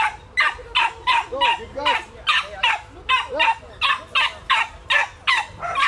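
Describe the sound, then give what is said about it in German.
Dogs bark in rapid, steady succession as they are brought to the start of a dog race, a dozen or more sharp, loud barks that keep up an excited, almost continuous rhythm. “Bitte kommen Sie zum Start mit Ihren Hunden.”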